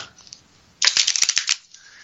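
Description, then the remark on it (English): A deck of large tarot cards riffle-shuffled: a quick, dense flutter of rapid crisp clicks lasting under a second, then a softer rustle as the cards settle. No one speaks. “Another riffle with these big monsters.”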